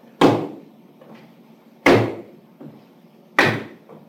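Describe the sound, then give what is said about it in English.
Heavy, flat slapping footsteps of a person with foot drop who oversteps to compensate, each loud smack followed by a softer step, repeating three times in an uneven, plodding rhythm on a hard floor, with no talking. “Foot slap, early frequent audible foot problem where you overstep to compensate for the foot drop.”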